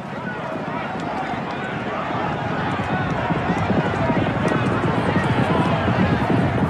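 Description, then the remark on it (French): Rapid, drumming hoofbeats of racehorses galloping in a race on the track at Epsom Downs, a continuous thundering rhythm that stays loud throughout, over a dense, noisy background. “Puis soudain, lors de la troisième course, au niveau du virage de Tattenham, elle se faufile entre les barrières et se jette sous les sabots du cheval qui court pour le roi.”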